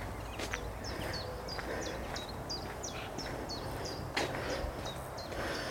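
Chiffchaffs call insistently in bright sunshine, a steady run of bright, high see-sawing chirps repeated every fraction of a second, clear over a soft outdoor hush with an occasional dull knock.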